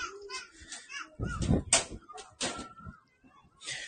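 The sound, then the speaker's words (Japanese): Children's voices fill the background with a busy jumble of chatter, babble and occasional shouts, rising in a few loud bursts and dropping briefly before picking up again. “子供たちの声がすごいな。”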